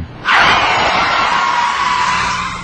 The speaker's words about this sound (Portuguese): Antenor freou o carro com certa violência após a passagem por uma curva acentuada da estrada, onde o barranco alto que acompanhava a rodovia apresentava um corte.